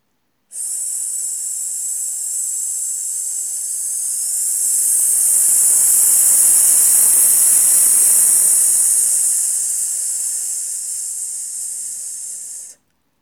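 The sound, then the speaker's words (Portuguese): A long, steady hissing 'S' exhale pushed through the teeth as a breath and voice exercise, lasting about twelve seconds, swelling slightly in the middle before stopping abruptly. No one speaks. “Então, novamente, solta o ar, inspira.”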